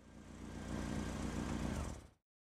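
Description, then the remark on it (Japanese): A car engine idles with a steady low rumble outside the prefectural police headquarters at 18:28 on Sunday, December 20, then is switched off abruptly about two seconds in, leaving silence. “アイドリングをしていた車のエンジンが切られ中から男が2人現れた”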